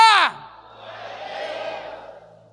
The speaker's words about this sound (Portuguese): Não, eu vou repetir para você dar um glória a Deus bem alto.